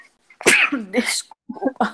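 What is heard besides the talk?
sneeze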